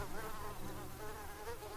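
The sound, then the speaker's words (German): A steady swarm of mosquitoes in a swamp whines and buzzes continuously, the wavering high-pitched drone rising and falling slightly in pitch with no voices present. “Stattdessen finden sie trostloses Gestrüpp und Sümpfe voller Mücken und Krankheitserreger.”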